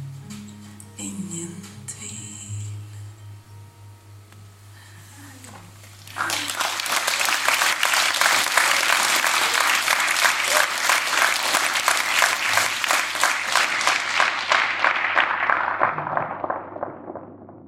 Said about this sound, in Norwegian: publikum er fornøyde. De klapper og klapper. Plata er ferdig, release-konserten er ferdig.